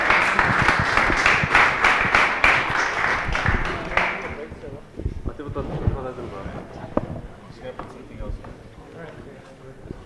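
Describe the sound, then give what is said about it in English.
An audience bursts into dense, loud applause as panelists are invited onto the stage for a discussion; the applause holds steady for about four seconds, then quickly thins out and fades, leaving scattered claps and murmuring voices. “Yeah, big round of applause.”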